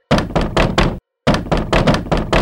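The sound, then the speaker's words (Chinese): Loud, heavy knocking on the door of a wooden house, the big bad wolf knocking hard, in two quick bursts, four thuds, a short pause, then five more in a steady rhythm, with no voices. “说时迟，那时快，大野狼来到了猪二哥的门前，他大力的敲了门。”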